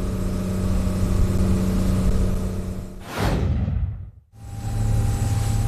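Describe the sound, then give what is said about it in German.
A boat engine roars steadily as the boat leaves the harbor basin, loud and droning with a low hum, briefly swelling and dropping away before the motor's rumble returns at full strength. “Ja, aber jetzt fahren wir aus dem Hafenbecken raus, jetzt wird es laut”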